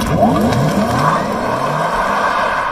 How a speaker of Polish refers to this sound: Testujemy go zarówno po mieście, jak i po dłuższym odcinku. Samochód naprawdę jest niesamowity, jest bardzo cichy, tylko szumu opon, natomiast silnika w ogóle nie słychać.